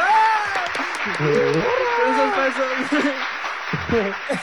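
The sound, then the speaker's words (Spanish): An applause sound effect of steady, dense crowd clapping runs for the whole few seconds, loud and unbroken, with people talking and laughing over it. “Fue y dijo dos veces cohete, es doble aplauso.”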